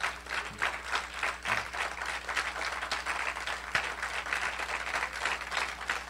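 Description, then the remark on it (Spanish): An audience applauds Christ steadily, a dense, continuous wash of many hands clapping at a fairly even level throughout, with no one speaking over it. “Dale el aplauso a Cristo con ganas.”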